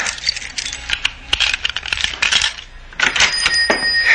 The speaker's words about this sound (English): Stop fumbling with those keys. Open the door.